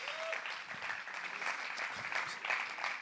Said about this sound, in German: Lass mir ein Herzlichen Applaus geben.